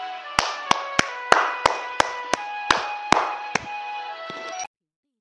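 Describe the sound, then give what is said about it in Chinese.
Applause welcoming a story-session teacher to explain a short story, with about nine sharp, evenly spaced claps over a steady noisy wash and faint sustained musical tones. It stops abruptly after a few seconds, with no voices. “为我们解析一段小故事，掌声有请。”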